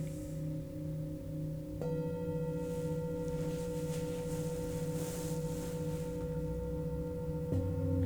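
Sustained, ringing singing bowl tones layered together, humming steadily with shimmering overtones; new strikes swell in around two seconds and again near the end, with no talking.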